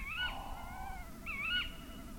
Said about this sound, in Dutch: Maar voorlopig genieten we nog even van het geroep van die uilen. Ja, mooi hè?